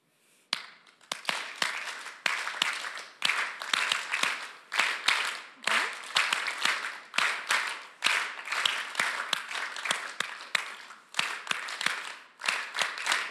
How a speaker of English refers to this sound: Oké, so please clap along with me.